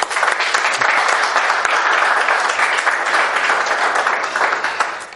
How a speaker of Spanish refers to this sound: Un aplauso para ella.